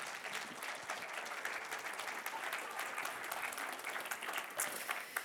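A crowd claps steadily for several seconds, a dense, continuous patter of many hands at moderate volume with no voices standing out.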